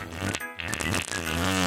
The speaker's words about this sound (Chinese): 鼹鼠先生居然又放屁了！ 哎呦，怎么又来啊？你到底是吃了什么啦？